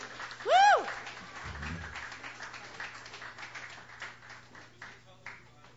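An audience applauds steadily for several seconds to welcome a young performer to the stage for her first performance, with a sharp whistle rising over the clapping near the start and scattered cheers mixed in.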